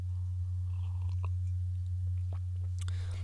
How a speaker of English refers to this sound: As I'll uh, take a sip of uh, coffee here.